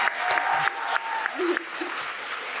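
An audience claps steadily for a few seconds in applause for Nashwa Shihab, a dense continuous patter of applause with a few faint shouts or voices mixed in.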